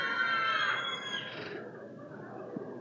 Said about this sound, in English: Kids, we got any kids in here? Kids, can I hear you? Go ahead and scream in church. You're allowed to scream. Go ahead.